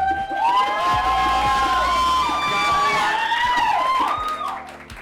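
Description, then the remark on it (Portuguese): A crowd at the Bar Queen cheers loudly and continuously for a singer's first show on its stage, with high whoops and shouted voices rising over a steady wash of clapping, the noise staying strong for the whole stretch before easing slightly at the end. “Salva de palmas!”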